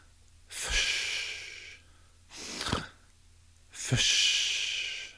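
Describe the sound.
A person demonstrates breathing in and then breathing out, audibly: a long inhale, a shorter breath, then another long exhale, three broad airy bursts with brief pauses between them and no talking.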